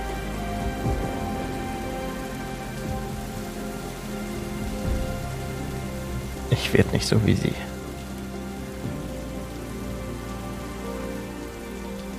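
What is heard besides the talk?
heavy rain falling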